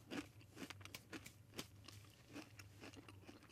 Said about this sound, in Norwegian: Hvor lenge skal du tygge det? Eh, bare svelg.